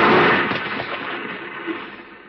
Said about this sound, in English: The gas tank caught and burst, and the car exploded into a tower of flames.